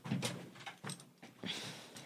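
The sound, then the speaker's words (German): A padded door is slammed shut with a few dull, muffled thumps and rattles in quick succession, soft rather than a sharp bang. “Ich gehe jetzt überraschend ja. raus und versuche die Tür zu knallen.”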